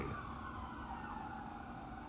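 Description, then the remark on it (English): Emergency vehicle sirens wail steadily outside as they pass, a sustained tonal whine over low traffic rumble, continuous with no one talking. “I don't know if you can hear those sirens.”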